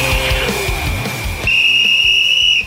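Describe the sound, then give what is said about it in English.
A sharp, shrill whistle blast rings out loud, holding steady for over a second, following a shorter whistle tone over a busy, thumping background. “And they all wear a whistle, yeah, it's stupid.”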